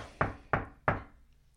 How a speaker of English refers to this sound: knocking on wood